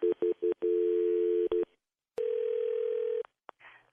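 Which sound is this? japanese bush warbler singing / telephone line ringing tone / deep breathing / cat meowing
telephone line ringing tone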